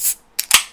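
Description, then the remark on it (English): A can of cold drink cracks open: a brief hiss, a short pause, then a sharp metallic snap and a louder pop, followed by a bright, fading fizz. No one speaks. “Cracking a cold one.”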